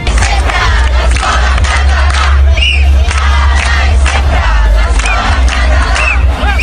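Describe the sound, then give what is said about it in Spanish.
A large outdoor protest crowd in Barcelona, more than 35,000 people demonstrating for Catalan-language schooling, shouting and chanting a slogan together, a dense, loud wall of many voices with rhythmic surges and occasional higher cries rising above the din. “Ahora y siempre la escuela en catalán es la reivindicación escuchada en las manifestaciones en contra de las sentencias que obligan a varios colegios a impartir al menos un 25% de sus clases en castellano.”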